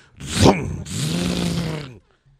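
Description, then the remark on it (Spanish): An artificial sports car engine sound played through speakers fitted to a Nissan electric car: a quick rising-and-falling growl, then a longer, steady rumbling roar that cuts off abruptly, loud. “Que parece un motor de verdad pero no es, es, un sonido.”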